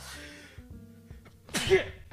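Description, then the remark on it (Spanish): A single sharp sneeze bursts out near the end, fairly loud, after a moment of strained, held-back vocal noises as someone tries to stifle it. “estoy a punto de estornudar y estoy tratando de disimular.”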